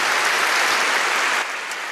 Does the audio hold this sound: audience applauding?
yes